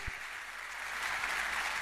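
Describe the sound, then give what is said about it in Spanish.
An audience applauds steadily, a dense wash of many hands clapping at once that holds an even, fairly loud level throughout, with no voices standing out over it. “fuerte el aplauso para por favor.”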